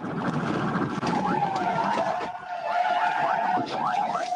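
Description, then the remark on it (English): Tires screech in a long, wavering squeal over loud, continuous road and engine noise as a police car strikes an SUV on a highway, making it spin, hit the inside wall and flip, with a couple of rough thuds mixed into the steady roar. “The maneuver caused the SUV to spin on the highway, hit the inside wall, and flip.”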